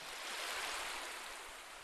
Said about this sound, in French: Et enfin s'effondra sur les rochers dans l'écume des vagues.